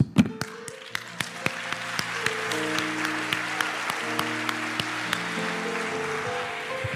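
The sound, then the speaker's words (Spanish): An audience applauds during a Spanish-language sermon in a steady, dense wash of clapping, with sharper claps landing on a regular beat and sustained low organ-like tones holding underneath throughout. “Por ahí unos hermanos aplaudieron y como que los dejaron solos.”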